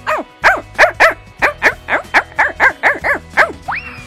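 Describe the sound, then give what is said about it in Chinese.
A man imitates a dog barking with his voice, giving about eleven loud, evenly spaced woofs in a steady rhythm, followed by a brief rising whine at the end. “那模仿一下狗的声音哈”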